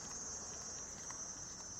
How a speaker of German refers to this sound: das sind tatsächlich hier dieses fiepsende Geräusch irgendwelche Tiere, die in den Bäumen sitzen. Zikaden, was immer.